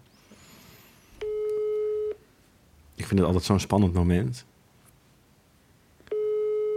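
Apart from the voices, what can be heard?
telephone call tone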